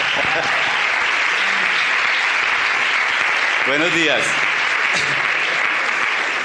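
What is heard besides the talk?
audience applause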